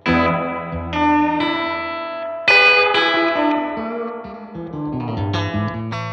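Clean Stratocaster electric guitar chords played through a reverb pedal ring out with a lush, spacious reverb, each strum blooming and sustaining into a wash of tail before the next; no voices, steady moderate volume.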